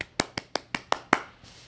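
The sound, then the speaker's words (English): About six sharp hand claps in a quick, steady rhythm, fairly loud, like one person applauding briefly, with no talking. “Real love gets a round of applause.”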